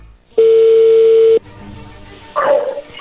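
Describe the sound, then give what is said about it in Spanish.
A single loud, steady electronic ringback tone on a phone line, lasting about a second, followed by quiet line noise and a brief, sharp burst of sound near the end. “Ok, a ver, ahí entró la llamada.”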